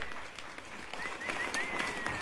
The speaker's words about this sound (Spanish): ¡Aplauso fuerte!